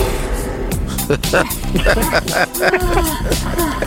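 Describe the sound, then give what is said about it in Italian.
A bear high on cocaine roars in loud, rough bursts over a busy Italian-dubbed movie-trailer soundtrack, with voices speaking and shouting throughout and dense, dramatic noise packed into a few seconds. “L'orso è strafatto di cocaina!”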